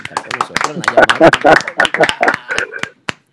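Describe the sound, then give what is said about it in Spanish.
An audience applauds with a steady patter of sharp claps for about three seconds, mixed with voices and cheering, before the clapping tapers off to a few last claps. “Aplauso para”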